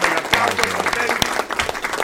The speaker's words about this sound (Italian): un bel applauso.